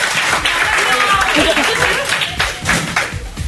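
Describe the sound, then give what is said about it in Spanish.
An audience bursts into applause, a dense, steady clatter of many hands clapping at once, with a few voices mingling in the background. “Vale, ya, es que así mi madre luego ya el aplauso y puede eh, presumir delante de las vecinas.”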